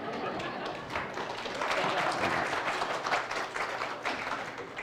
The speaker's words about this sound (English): Okay, so the applause didn't last long enough for me to get up here, so.